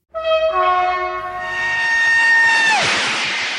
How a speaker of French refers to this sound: Les trains qui rejoignent les grandes villes sont privilégiés, et le TGV arrive dans les années 80.